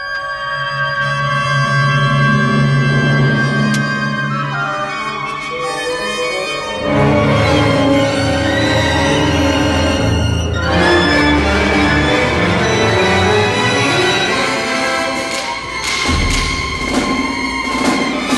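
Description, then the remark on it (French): Loud, dense orchestral music with clashing brass and a wailing siren-like tone, building into crowded, honking layers and heavy low thuds that evoke chaotic city traffic. “On écoute donc Edgar Varese et un tout petit extrait de sa pièce intitulée Amérique.”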